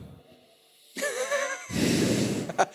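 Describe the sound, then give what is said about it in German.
A voice imitates heavy, drunken breathing: a wheezy, hissing inhale followed by a louder, rough, noisy exhale, with a brief snort-like catch at the end. “ja, das, und dann dieses das Atmen, diese, diese.”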